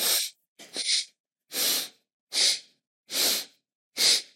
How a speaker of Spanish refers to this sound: Y la otra es Vastrika Pranayama, que también es una respiración muy estimulante, que es inhalar y exhalar también con intensidad fuerte, como